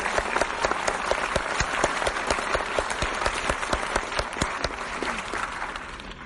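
An audience applauds steadily for several seconds, a dense wash of many hands clapping with sharp individual claps popping out, holding a fairly even loudness throughout with no voices.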